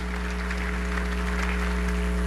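A crowd claps steadily for the whole stretch, a dense, even patter of many hands with no voices over it, accompanied by a constant low electrical hum.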